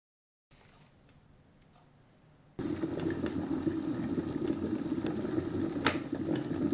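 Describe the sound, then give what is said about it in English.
A kettle comes to the boil: a faint hiss for a couple of seconds, then a sudden jump to a loud, steady bubbling rumble with crackling, continuing to the end. No one speaks. “Once the kettle has boiled”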